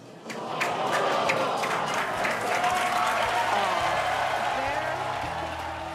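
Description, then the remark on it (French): A large crowd of engineers and designers bursts into sustained applause with cheering and whooping after the explosion of SpaceX's Starship rocket, dense clapping filling the space for several seconds, with excited voices shouting over it. “L'explosion a été suivie d'un tonnerre d'applaudissements de la part des ingénieurs et des concepteurs de l'engin.”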